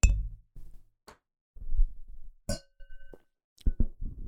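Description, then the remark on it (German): During a toast, a drinking glass strikes a microphone: a series of dull knocks and bumps, with one sharp ringing clink; several low thuds come in irregular clusters, and a soft tone lingers briefly after the clink. “Hallo, wir haben gesagt gegen die Schraube, nicht gegen das Mikro.”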